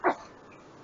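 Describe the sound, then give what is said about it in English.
A single quick sneeze bursts out sharply at the start, then fades into faint background hiss with no talking. “Bless you.”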